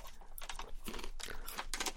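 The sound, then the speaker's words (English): Someone chewing a crunchy toffee-flavoured cricket: about five crisp, crackling crunches in a steady rhythm, fairly quiet, with no talking. “Right, I'm going to try a uh, toffee flavoured cricket now.”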